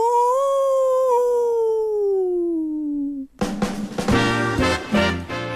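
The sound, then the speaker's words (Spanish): A single long, loud werewolf howl rises slightly and then slides steadily downward in pitch for about three seconds, cut off abruptly by a burst of dense, percussive music. “El hombre lobo. ¡Aú!”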